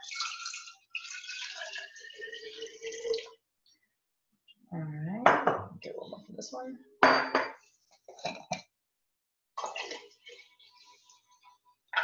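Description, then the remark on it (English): Three cups of filtered water are poured into a container in a few short bursts while making homemade non-toxic bleach, with a rising gurgle as it fills, mixed with clinks of dishes and a voice speaking briefly. “So for your non-toxic bleach, you'll use three cups of water.”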